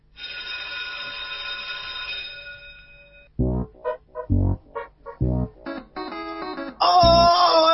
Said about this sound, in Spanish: no olvida que su compromiso principal es con la enseñanza y por eso le pido a la operadora y jefa de preceptores, Carla Borria, que haga sonar el timbre para comenzar de una vez por todas una nueva edición de la escuelita de los sábados de Tomayaca.